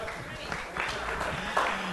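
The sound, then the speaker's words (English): A crowd at Savor applauds steadily for the event's supporters, Brewers Supply Group and Manhattan Beer Distributors, a dense, continuous patter of many hands clapping at moderate loudness, with a faint murmur of voices mixed in underneath. “So uh, big round of applause for them, and then um, thank you.”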